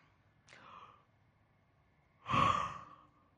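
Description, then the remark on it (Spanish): A person yawns on purpose during a talk: a soft breathy intake, a short pause, then a louder, drawn-out voiced exhale that fades away. No one speaks. “Bueno, ese bostezo no es para que piensen que esta conferencia es aburridísima y se van a dormir, no.”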